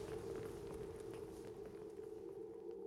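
A large crowd in a plaza rises to its feet, many leather-soled shoes shuffling softly and continuously over a hard surface with no clear rhythm, over a steady low hum. Nobody speaks.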